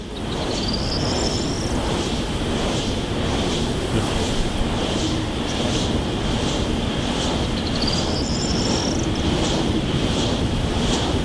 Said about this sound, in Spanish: este es el viento frescachón haciendo girar un molino, un aerogenerador.